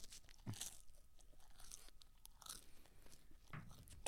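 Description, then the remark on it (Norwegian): Someone chews a mouthful of dry crackers, with loud, crisp crunches breaking out irregularly over a steady background of softer crackling bites. No one speaks. “Jeg lager en masse kjeks oppi leppa.”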